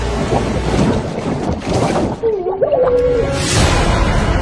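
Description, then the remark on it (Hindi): Water churns and swirls steadily in a small pond, a loud rushing wash with a windy, hollow texture, and a brief thin whistling tone rising partway through before the surge swells again. “लेकिन ज्यादा देर तक ऋषि की हंसी टिकी नहीं सचमुच उसका हाथ पकड़ के किसी ने खींचा और वो वो पानी के अंदर उस छोटे से तालाब में घूमने लगा”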